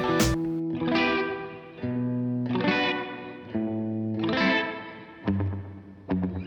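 A country song's instrumental opening plays alone, with sustained, slightly distorted guitar chords that swell and change every second or so, then sharp, punchy strums near the end.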